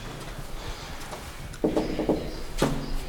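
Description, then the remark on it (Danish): A few quick knocks on a window pane, irregularly spaced and fairly sharp, rising above a steady low background hum. “Og så har jeg sådan en mærkelig tvangstanke med, at jeg skal hen og så lige gøre sådan her på vinduet.”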